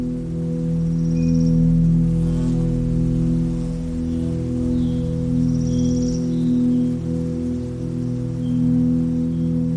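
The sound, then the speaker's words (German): A steady, droning buzz of bumblebees and bees, with a few hornets and ladybugs among them, heard from far away in spring, hums continuously throughout, fairly even in level, with a few faint, brief high chirps in the background. “Von weit her sind die emsigen Hummeln und Bienen zu vernehmen.”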